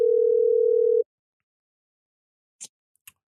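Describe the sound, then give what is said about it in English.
An outgoing telephone call tone, placed to add a caller into a party line: one steady, low, humming beep lasting about a second, followed by silence and two short, faint clicks. “I'm just going to call him and add him in.”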